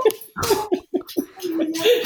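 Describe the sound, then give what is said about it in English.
A dog down the street whimpers and gives short, high yips in a quick, uneven series, followed by a drawn-out whine, clear with no one speaking. “There's a dog down the street that's barking.”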